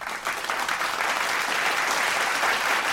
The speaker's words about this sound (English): Yep. Clap that up.